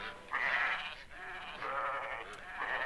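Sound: sheep bleating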